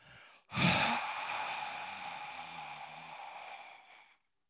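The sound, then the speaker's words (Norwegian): A voice imitates a grandfather's long, drawn-out exhale, a single breathy sigh that starts with a sharp burst and then trails off steadily for several seconds, fairly loud. “Dere, en ting som jeg husker fra at bestefar dro fra meg rett sånn plutselig uten å si ifra, det var at han pustet ut et langt pust sånn”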